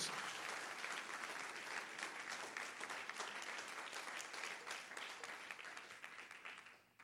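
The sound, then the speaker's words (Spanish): A large church audience applauds loudly for Jesus with dense, sustained clapping that fills the room, holding steady before tapering off slightly near the end. “Dale un aplauso fuerte a Jesús. Vamos, un aplauso fuerte a Jesús.”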